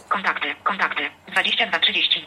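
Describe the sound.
A synthetic phone screen-reader voice (TOX) announces the time, 22.30, in a few quick, clipped bursts of speech with a short pause between them, clear with a thin, phone-like tone, as a finger moves across the phone screen.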